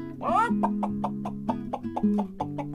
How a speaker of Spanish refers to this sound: hace mucho tiempo había una gallinita zarabiada, lo más de bonita, escarbando en el suelo, porque para eso son buenas las gallinas para escarpar en el suelo, y se encontró un grano de trigo.